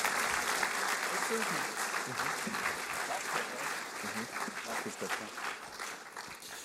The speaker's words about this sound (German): Merci viel, vielmals für eure Ehrlichkeit, für die Bereitschaft hier und ich würde Ihnen gerne einen riesen Applaus geben zum Schluss. Danke vielmals, genial.